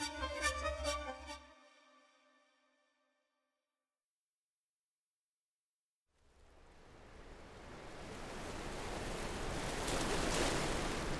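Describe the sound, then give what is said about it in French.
A brief tonal chime rings and fades into a few seconds of silence, then the wash of North Sea waves and cool wind on the beach at Ostend, Belgium, rises in, swelling into a steady, loud roar with no voices. “Un vent frais souffle sur la plage d'Ostende, en Belgique.”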